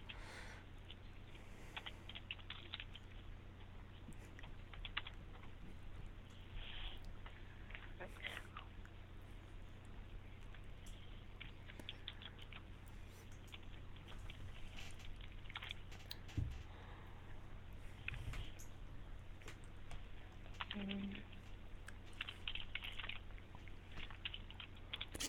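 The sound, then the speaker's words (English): Soft, scattered clicks of typing on a computer keyboard patter along in irregular bursts for the whole stretch, faint, over a steady low hum with murmured voices in the background. “typing so much for?”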